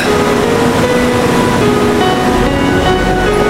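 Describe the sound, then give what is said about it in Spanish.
A steady, continuous rush of ocean waves breaking on a beach at even volume, with soft sustained musical tones humming quietly underneath and no voices. “Frente a ti el océano su poder.”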